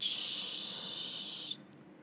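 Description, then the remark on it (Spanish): A voice imitates a pressure cooker releasing steam: one steady, sharp hiss held for about a second and a half, then cut off abruptly, fairly loud with no talking. “Entonces, te repito, yo lo entiendo y lo explico como una olla express que contiene muchísimo vapor y que al momento de girar la válvula empieza a salir”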